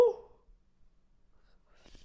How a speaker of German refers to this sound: die, die öfter beim Podcast zuhören, die wissen schon, es ist so ein bisschen der Running Gag, dass ich voll oft gähnen muss.